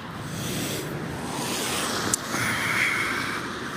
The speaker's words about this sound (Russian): Вот я сейчас иду по набережным, понимаете, серые такие облака, тяжелые, такой дождь идет, ой, красотища. Река такая выходит уже, ну, поднялась очень сильно.